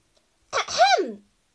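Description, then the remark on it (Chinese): A single throat clearing before starting a lesson, a short raspy burst that slides into a voiced, rising-then-falling hum before trailing off, heard alone with no talking around it. “…清了清嗓子，开始上课啦。”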